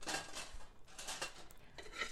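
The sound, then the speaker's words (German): Metal pans clatter and scrape on a stovetop in several quick bursts as a man swings his pans making pancakes, moderately loud, with short gaps between the clanks. No one speaks. “Barbara hatte ihm von den letzten 24 Stunden, die sie wie benebelt erlebt hatte, erzählt, während er am Herd seine Pfannen schwang”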